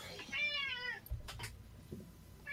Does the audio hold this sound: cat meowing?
yes